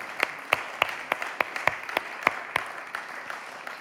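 An audience applauding indoors, a dense wash of clapping with a few sharp, evenly spaced claps standing out in a steady rhythm, moderately loud and with no voices.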